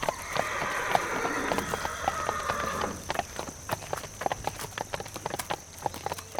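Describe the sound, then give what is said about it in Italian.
Horse hooves clip-clop in a steady, uneven rhythm of sharp clicks, with a sustained hum or drone underneath for the first few seconds that then drops away, as riders travel on horseback along secondary roads from Milan to Rome. “percorrendo il tragitto da Milano a Roma su strade secondarie e a bordo dei loro fidi destrieri”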